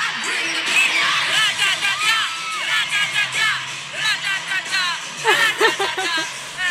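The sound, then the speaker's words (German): A concert crowd of thousands yells and cheers together in loud, rhythmic bursts, many voices shouting "ratatata" in unison along with the song, filling the space with dense, echoing noise. “Also ähm, mit so Tausenden von Leuten ratatata zu schreien, ist schon ein geiles Gefühl irgendwie.”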